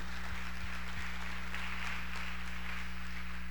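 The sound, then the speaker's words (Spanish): A church audience applauds for the Lord during an afternoon service, a dense, steady wash of many hands clapping that holds evenly for several seconds, fairly soft, with a low electrical hum running underneath and no one speaking. “Déselo al Señor ese aplauso en esta tarde.”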